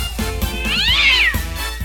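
A single drawn-out cat meow that rises and then falls in pitch, loud, with no one talking over it.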